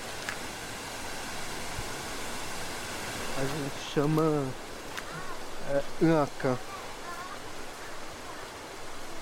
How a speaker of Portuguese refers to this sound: É um cachoeira, né? daqui ainda um pouquinho limpo, mas da cima tem muita é, gente morando, então já não é muito muito limpo, né? Mas para tomar banho até que dá, só para tomar banho.